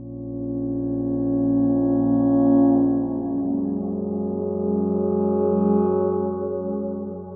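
Sustained synthesizer tones layered with echoing repeats from a Roland Space Echo, their pitch and timing wavering and drifting slightly as the texture smears and shifts midway, steady and moderately loud with no voices.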